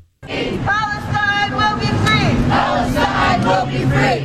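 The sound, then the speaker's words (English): A large crowd chants and shouts in unison at a pro-Hamas rally in downtown Tucson, loud, with raised voices rising and falling in rhythmic bursts over a steady roar of many people. “13 News with the story about the pro Hamas rally in downtown Tucson”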